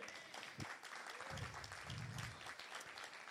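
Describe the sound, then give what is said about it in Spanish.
An audience applauds for the Lord in a morning church gathering, steadily, a dense crackle of many hands clapping at once, with some low murmuring voices mixed underneath. “Démosle un aplauso al Señor en esta mañana.”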